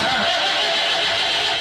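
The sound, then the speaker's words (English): A car engine struggles to turn over, a loud, harsh grinding whir that holds steady for under two seconds, with no voices. “So if your car sounds like this”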